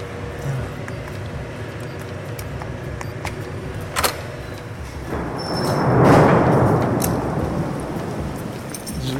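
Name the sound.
thunderstorm with thunder rumbling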